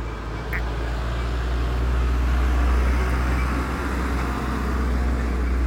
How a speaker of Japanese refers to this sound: すいません車が走っちゃった